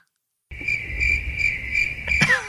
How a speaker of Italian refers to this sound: ecco i grilli.